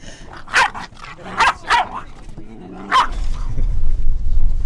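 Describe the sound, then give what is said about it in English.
A dog barks four times in short, sharp bursts, spaced irregularly, with a low rumbling noise building underneath toward the end. “We need to get me some dog biscuits or something.”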